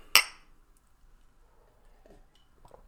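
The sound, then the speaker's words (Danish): A single bright clink of glasses knocking together in a toast, sharp, with a short ringing decay before it falls quiet, followed by a few faint soft clatters. “Så vi tager en tår. Ja, skål.”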